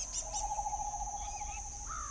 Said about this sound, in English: Sometimes at night, you hear the owl making its whoo whoo noise